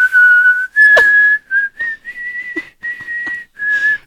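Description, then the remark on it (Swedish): Someone whistles a short song melody, a string of sustained, clear notes separated by brief breaths, with a few faint clicks and knocks in the background. “Du har hört den förut så du visslar med mig bara.”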